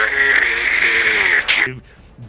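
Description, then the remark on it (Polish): A loud, shrill, sustained scream held for about a second and a half before cutting off abruptly, voiced by one person imitating a yell right up close to the microphone. “Aaaa, zaczynacie wrzeszczeć, nawet w mikrofon.”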